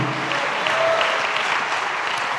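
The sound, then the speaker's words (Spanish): An audience claps steadily as an applause to God, a dense wash of many hands applauding at even loudness throughout, with no clear voices standing out above it. “Dale un aplauso a Dios por eso, amados hermanos.”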